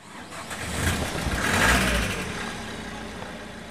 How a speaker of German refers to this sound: Die Tour beginnt. Der weiße Bus startet aus der Garage der Caritas-Zentrale in Otterkring.